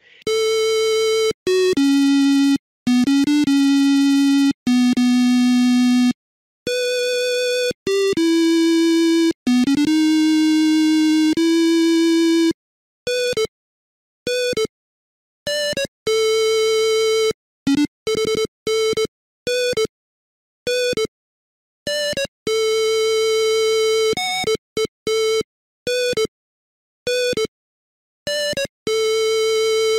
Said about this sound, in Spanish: Y, la verdad es que eh, una vez usé la música del Outrun de, de MS2 para, para tronar a los vecinos eh, en, un podcast. Eh, es horrible, o sea, la, la versión es mala, mala de solemnidad.